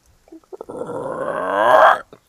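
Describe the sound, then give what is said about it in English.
A person imitates the croak of a giant, bowling-ball-sized frog: a single loud, drawn-out, raspy, throaty call that swells in volume for over a second before cutting off abruptly. “He's holding a giant frog not giant isn't like four feet, but giant isn't like like bowling ball size frog, and he's going to essentially toss it towards you as it leaps”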